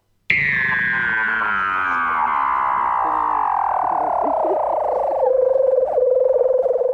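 A sleeping seal lets out one long, continuous dreaming call, a buzzy, harmonic wail that slides steadily downward in pitch, then settles into a lower, steady drone. It sounds close and fairly loud.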